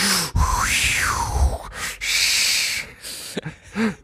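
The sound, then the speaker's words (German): A voice imitates the heavy, straining breaths of someone on the toilet: long noisy exhales and groaning pushes in quick succession, loud, ending with a short strained grunt. “Dass du auf die Toilette gehst, als erster da mal alles abfeuerst, was dein Körper hergibt und dann noch das Ganze kommentierst mit so, mit so starkem Atmen.”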